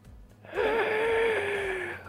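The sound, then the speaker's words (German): A single long, strained sucking inhale as the lungs fill, starting abruptly and drawn out for over a second, with a thin whistling wheeze running through it; fairly loud, with no talking. “Und ihr hört, wie die Lunge sich füllt, aber es irgendwie so eine Art eher Saugen ist und es unangenehm wirkt.”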